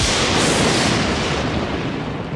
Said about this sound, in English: Still going with the lightning sound. Here it is.